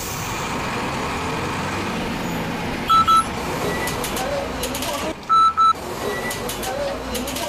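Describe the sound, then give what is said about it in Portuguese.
A crowded city bus rumbles with steady engine and road noise, pulling in to stop, while two short pairs of high electronic beeps sound a couple of seconds apart. “que ônibus tão lotado é esse?”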